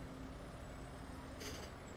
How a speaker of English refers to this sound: and the sounds of the traffic basically start to disappear start to notice that you're walking down the stairs in daylight of the subway